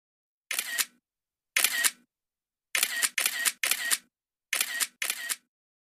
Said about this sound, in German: Das ist das Geräusch, das man hört, wenn man mit dem Handy Fotos macht.